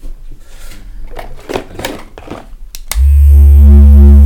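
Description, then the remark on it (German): Scattered clicks and rustles of handling, then an electric foot massager switches on abruptly into a loud, steady, low-pitched vibrating buzz that drones without a break until the end. “Deswegen habe ich mir so ein Fußmassagegerät gekauft, das ist der Kopf.”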